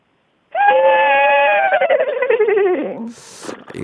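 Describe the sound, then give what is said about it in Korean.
A person imitates a horse's neigh, as one of a series of requested animal sound imitations, with a loud, sustained whinnying call that starts steady, then wavers and trembles as it falls in pitch, ending with a short breathy exhale. “자, 이번엔 음. 말소리.”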